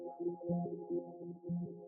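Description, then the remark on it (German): Granular synthesis texture with the sub oscillator removed and no synthesizer tones, only grains: overlapping low, tonal grains swell and pulse in an uneven repeating rhythm, forming a steady droning cloud with no voices present. “Jetzt dudelt er seine, seine Grains, die er, also es kommt jetzt nichts mehr vom Synthesizer, das ist jetzt alles nur noch Granularsynthese, was wir hören.”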